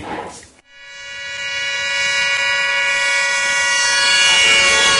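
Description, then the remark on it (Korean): A brief burst of rushing noise gives way to a loud, steady, horn-like vehicle siren tone rich in harmonics, growing gradually louder as the vehicle approaches, illustrating the Doppler effect. No voices. “자동차가 우리한테 다가오면 소리가 커지다가 어, 지나가면 갑자기 정막이 찾아오죠.”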